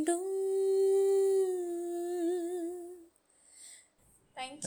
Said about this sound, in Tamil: இதுதான் நாய்ஸ்ன்னு சொல்லுவாங்கன்னு நினைக்கிறேன் கரெக்ட் அது என் பக்கத்து வீட்டு நாய் ஏன் இன்னைக்குன்னு பாத்து இப்படி கத்துது